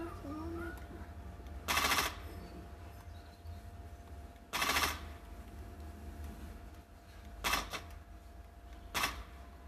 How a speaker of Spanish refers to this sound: A la mecha, si se ven potentes los balazos.